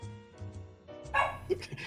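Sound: dog barking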